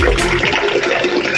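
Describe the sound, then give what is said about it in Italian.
A toilet flushes, heard over a phone call, a loud, steady rush of water that fills the whole moment without pause, with no voices over it. “Ma che sta pisciando?”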